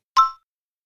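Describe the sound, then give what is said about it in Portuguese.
A single bright doorbell ding rings out alone, clear, fading quickly to silence within a fraction of a second. “Agora repete tudo comigo em alemão como dizemos: Assim, eu já estou ouvindo a campainha.”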